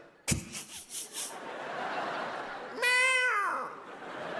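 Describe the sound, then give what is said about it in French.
A person imitates a cat with a single drawn-out, wavering meow, preceded by a sharp burst and a short run of rhythmic, laugh-like puffs, moderately loud. “D'accord Je n'ai jamais vu un chat s'approcher d'un autre chat, faire et l'autre faire.”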